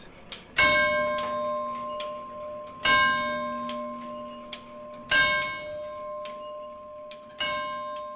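Tower clock mechanisms in the tower clock museum in Gräfenberg, Franconian Switzerland, tick with sharp, uneven clacks, while a bright bell tone strikes roughly every two seconds and rings on with a shimmering, harmonic hum between ticks. No voices.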